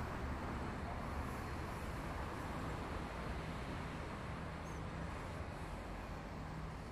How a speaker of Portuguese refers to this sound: Dá um frio na barriga sentir esse balanço enquanto um fluxo enorme de carros passa embaixo de nós pela Avenida Brasil.